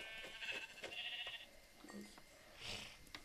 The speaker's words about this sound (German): Noch ein Schaf. noch ein Schaf.